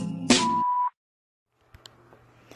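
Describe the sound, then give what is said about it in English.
A single steady electronic beep, about half a second long, from the Medicine Remix hotline voicemail, starts right after a sharp click and ends abruptly. Silence follows, then faint clicks and hiss like an open phone line. “Please leave message at the sound of the beep.”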